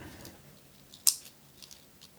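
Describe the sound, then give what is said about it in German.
A multicolour ballpoint panda pen clicks once, sharp, then a few softer mechanical ticks follow with no one speaking. “Entschuldigung für das Stifteklackern, die ganze Folge.”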